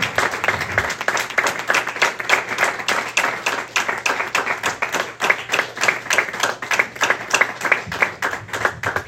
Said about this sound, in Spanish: Damos ese aplauso más al Señor.